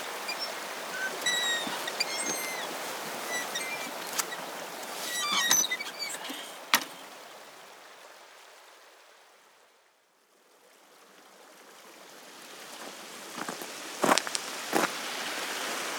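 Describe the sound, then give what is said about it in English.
The River Swale, running low, shallow and broad, babbles and trickles steadily over many boulders, with a few sharper splashes and birdsong in the background. The flow fades out briefly midway before returning. “Well, now we'll um, take a chance to cross the River Swale, which is very unswale like. It's more like a beck, isn't it, at the mm-hmm.”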